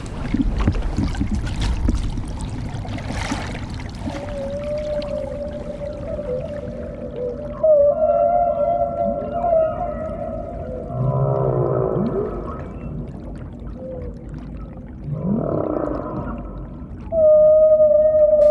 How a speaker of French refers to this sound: Mais là, ce qu'on entend, ce sont les chants des baleines à bosse.